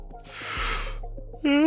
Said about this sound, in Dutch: Nou, ik moet er zelf net van gapen als mensen gapen. Ja, dan ga je ook zelf gapen.